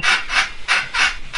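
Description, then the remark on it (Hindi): A washing machine in an apartment creaks and rasps in steady, rhythmic strokes while spin-drying clothes, about five harsh scraping pulses, fairly loud, with no voices. “washing machine चलती है धुल जाते हैं कपड़े तो लेकिन जब सुखाने की बारी आती है तो आवाज बड़ी अजीब अजीब सी आती है”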